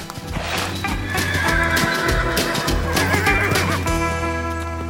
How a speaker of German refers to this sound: Ich sag es dir. Das Pferd.